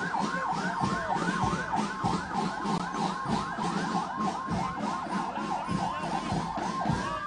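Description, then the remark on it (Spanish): A Spartan Gladiator fire ladder truck, carrying a ladder and 1,200 litres of water, sounds its siren in rapid, repeating yelping rises and falls, loud and continuous over a low engine rumble, with no one speaking. “Carro escala Spartan Gladiador, porta escala, capacidad 1.200 litros de agua”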